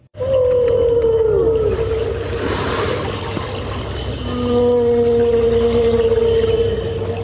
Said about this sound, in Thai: น้องๆค่ะและนั่นก็เป็นเสียงของเจ้าวานสีน้ำเงินค่ะ พี่เรามาได้นำเสียงของวานสีน้ำเงิน ไปเข้าเครื่องแปลเสียงเรียบร้อยแล้ว